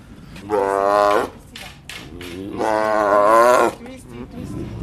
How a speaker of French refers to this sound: On a deux tigres qui descendent de leur cage donc.